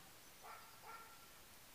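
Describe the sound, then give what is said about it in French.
Two quick, faint dog barks, a brief pause between them, against a quiet background hiss. No one speaks. “Ah, oh, les chiens.”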